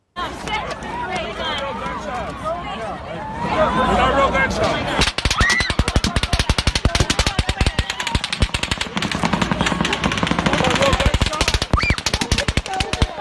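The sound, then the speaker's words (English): Rapid automatic gunfire from two different guns erupts after a few seconds of crowd noise and shouting, with dense, loud bursts of shots continuing steadily while voices clamor underneath, in a Global News clip from October 2, 2017. “But just right at the beginning, you can hear two different guns.”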